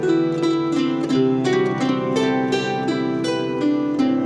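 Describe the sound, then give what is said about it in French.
A slow, stately orchestrated melody in rich sustained harmonies, decoded from the musical score tattooed on the backside of a figure in Hieronymus Bosch's painting The Garden of Earthly Delights; notes shift about every half second at a steady, moderately loud level, with no one talking. “Ce que tu entends, c'est la musique tatouée sur le cul d'un des personnages du Jardin des délices de Jérôme Bosch.”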